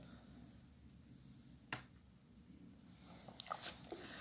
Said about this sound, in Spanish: Pero nada, vamos al tema que me salteé, este, me tomo un toque de agua.